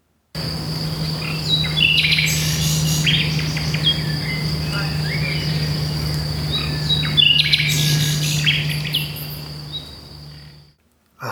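A nightingale sings in two rich bursts of varied phrases against a steady, high insect drone and a low constant hum, with no voices present.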